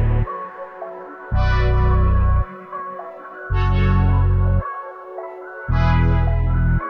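A pop song plays on the radio station Actívate FM with no talking: loud, heavy bass blasts arrive in long, evenly spaced bursts over a bright, effects-drenched synth layer, with a swelling high shimmer at the start of each burst.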